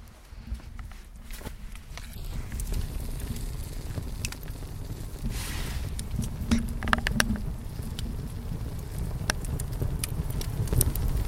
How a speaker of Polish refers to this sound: Chcecie posłuchać ognia? Ja przybliżę mikrofon do ognia. Miejmy nadzieję, że się nie spali.